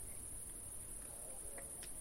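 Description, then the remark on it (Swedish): Crickets chirp steadily outdoors at night with the moon out, a continuous high-pitched shrill drone at an even level with faint low background rumble and no talking. “vi sitter utomhus och man hör lite ljud det är några grannar och det är lite syrsor och det är väldigt harmoniskt.”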